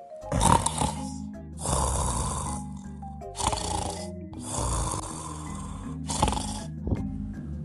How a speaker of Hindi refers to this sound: कुछ देर बाद उनके खराटे शुरू हो गए